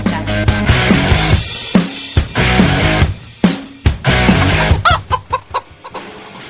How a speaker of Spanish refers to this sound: Tengo un pollo.